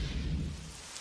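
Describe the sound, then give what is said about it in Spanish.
Steady afternoon rain of a storm hisses across a wide band, with a low rumbling underneath, fairly quiet and continuous for about a second with no voices. “Tarde de lluvia.”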